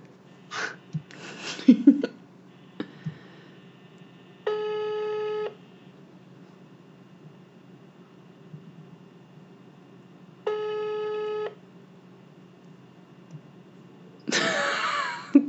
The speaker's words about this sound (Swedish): Ja, jag ringer nu här. Jag tar på högtalaren.